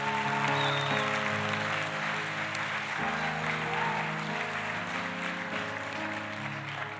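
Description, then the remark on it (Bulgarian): A crowd gives God an offering of applause during a sermon, clapping steadily for the whole stretch in a dense hiss that stays loud and even, with sustained keyboard chords playing underneath. “Дай му едно дарение на ръкопляскане, като че си вярваш.”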